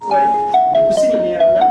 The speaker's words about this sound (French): Dans les locaux de l'Association des Marocains de France, le téléphone n'arrête pas de sonner. Depuis 48 heures, six bénévoles s'activent du matin au soir pour répondre aux nombreux appels.